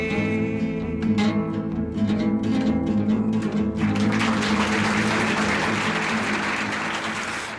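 A song with steady tonal music ends, and loud, dense applause from an audience rises after about four seconds and continues to the end.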